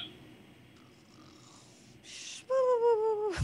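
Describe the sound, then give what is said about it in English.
A person vocally imitates snoring: a quiet breathy inhale, then a loud, nasal, harmonic snort-like drone that ends in an abrupt burst. Solo, no talking. “Sleeping. I mean, okay. S- snore.”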